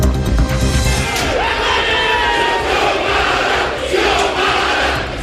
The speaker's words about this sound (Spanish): Y así se escuchaba el ambiente del Parlamento de Honduras este viernes, eh, golpes, trifulcas, empujones, eh, gritos eh, y un conato de rebelión contra la presidenta electa de izquierda,